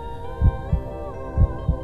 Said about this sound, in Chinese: 我听到了你的心跳，你感受到我的心跳，